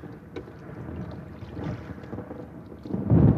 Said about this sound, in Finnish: Ja katsokaa, tuolta nousee lisäksi ukon ilma. Suuria mustia pilviä. Ja salama. Kohta jyrähtää.